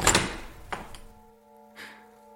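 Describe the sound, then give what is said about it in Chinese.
A front door is hurriedly opened in winter after the doorbell rang several times: a sharp latch clunk, a second thud and a lighter click, then a thin lingering hum and a soft final bump. No voices are heard. “我犹豫了一下，只能把衣服穿上，急匆匆跑过去，把大门打开了。”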